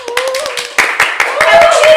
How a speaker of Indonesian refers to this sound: Mana tepuk tangannya?